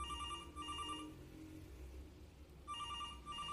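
A radio station's telephone rings during a broadcast, in two clear bursts of bright, warbling tones separated by a pause, with steady low room hum underneath and no one speaking.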